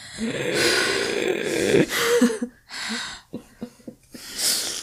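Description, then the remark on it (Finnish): A voice imitates anxious, breathy gasping, as of someone holding their breath and letting it out now and then in anxious wheezes: several strained exhales and sharp intakes of air in uneven bursts, fairly loud, with short pauses between puffs and no actual talking. “niin kuin, että on pidättänyt suunnilleen hengitystä ja sitten aina välillä tulee ulos sellaisena niin kuin, ahdistuneena pihinänä.”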